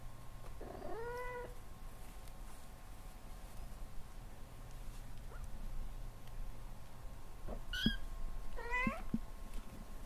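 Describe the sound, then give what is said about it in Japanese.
A cat meows three times during a TV segment that counts its meows over 30 seconds, one drawn-out call near the start, then two quicker cries close together toward the end, over a steady low background hum with no talking. “このコーナーは30秒間の間に猫が何回目うっていうかで、今後を占おうというコーナーです。”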